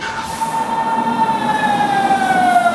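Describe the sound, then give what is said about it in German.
An S42 Ringbahn S-Bahn train pulls in at platform 2, its electric drive whining loudly and steadily, the tone sliding gradually lower as it slows, over a continuous mechanical rumble. “Angefahrene Zug auf Gleis 2, S42, Ringbahn über Jungbahnheide, Westkreuz, Südkreuz.”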